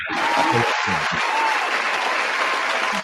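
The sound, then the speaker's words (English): A burst of steady applause from a crowd, dense and fairly loud, sustained for about three seconds before stopping abruptly, with a few faint whoops mixed in near the start, welcoming a guest on a show. “Give it a little applause.”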